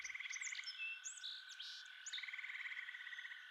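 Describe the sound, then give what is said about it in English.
Birds chirp and whistle intermittently over a steady, rapidly pulsing trill of swamp insects, forming a continuous, fairly quiet outdoor wetland ambience with no voices. “You notice squirrels running in the trees, and you hear birds chirping, as well as insects that you would commonly hear in a swamp.”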